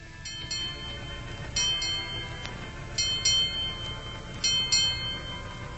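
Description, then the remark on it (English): A ship's bell strikes eight bells, marking the end of the night watch: four pairs of quick, bright metallic clangs with ringing overtones that hang between pairs, over a low steady rumble. No voices. “Eight bells. That was the end of the long night watch, and soon it would be morning.”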